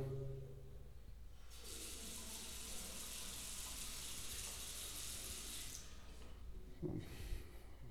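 A bathroom tap is turned on and runs with a steady, bright hiss for about four seconds before being shut off, recorded with the microphone held in front rather than pointed at the water, followed by a few faint handling clunks.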